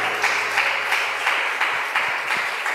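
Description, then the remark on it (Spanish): An audience applauds steadily for God during a church service, a dense wash of many hands clapping at a loud, even level with faint rhythmic accents and no voices standing out. “Y si usted lo cree, déle ese aplauso bien fuerte a Él.”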